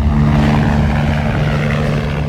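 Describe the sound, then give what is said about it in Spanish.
A helicopter evacuating a seriously injured worker with burns and trauma roars steadily, its loud engine and rotor drone holding at a constant pitch throughout, with no voices over it. “Este que oyen es el sonido de la evacuación en helicóptero del trabajador que está grave con quemaduras y traumatismos.”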